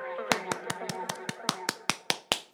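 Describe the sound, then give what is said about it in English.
A rapid series of about a dozen sharp, slappy solo hand claps made wearing a surgical glove, in a steady rhythm, with a faint voice murmuring underneath. The claps have a thin, rubbery snap, fairly loud. “do a weird solo clap with a surgical glove. kind of unusual sound there.”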